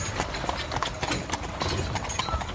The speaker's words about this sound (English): as the turning and churning of wheels from a carriage moving up the road is heard. The carriage is moving fast, pulled by four horses